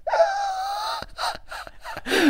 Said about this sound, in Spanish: Se ha puesto a roncar mi perra.